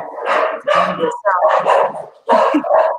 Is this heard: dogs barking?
yes